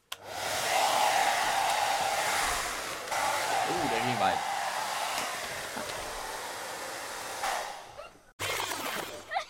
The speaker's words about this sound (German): ja, nochmal mit so Würmern beschweren, würde ich sagen. Föhn an und Papierflieger ab in den Sturm.